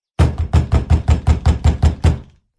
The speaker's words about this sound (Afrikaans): Na ruk kom sy by die heks se huis aan en sy klop aan die deur.